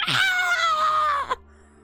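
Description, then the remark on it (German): A voice imitates a harsh, grating robotic scream, one sustained, buzzy, heavily distorted shriek lasting over a second before cutting off abruptly into quiet. “Krasser Roboterschrei.”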